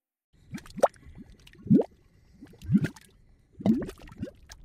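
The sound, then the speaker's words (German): Thick grey-brown mud bubbling and bursting at mud volcanoes as hot gases rise from deep in the Earth through their holes, in slow, irregular gloops, with about four heavy plops standing out over a constant low gurgle, moderately loud. “Was man hier hört, sind Schlammvulkane.”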